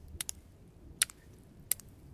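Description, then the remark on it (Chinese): Sparse, crisp droplet taps of teardrops falling, sounding like drops landing on leaves: a quick pair, then two single drips spaced apart, bright and sharp against a faint low background with no talking. “诶，这是雨滴掉在叶子上面的声音吗？”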